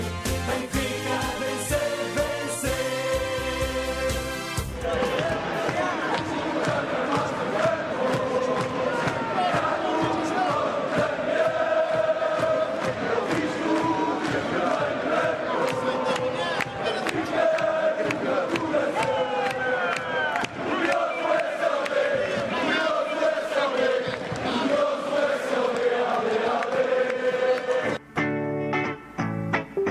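Football supporters chant the fan song 'Nascido na Farmácia Franco' together, a loud, continuous mass of voices holding sustained sung notes in unison, with brief harsher bursts of noise at the very start and end.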